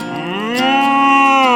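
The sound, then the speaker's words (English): A single loud, drawn-out moo from Marvin, the friendly, curious cow, rising slightly in pitch and then holding steady, with no one talking over it. “It's Marvin, the friendly, curious cow.”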